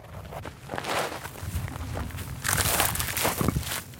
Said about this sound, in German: Um einen Eindruck zu bekommen, wie sich dieser Krieg anhört und wie er aussieht, muss man erst einmal marschieren. Es geht über dorniges Gestrüpp auf einen Hügel. Zum Grenzzaun nach Gaza ist es Luftlinie nicht einmal ein Kilometer.